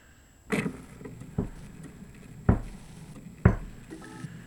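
A Victrola phonograph needle scrapes across a record in four short, rough bursts spaced about a second apart, fairly loud over a low background hiss, with no one speaking.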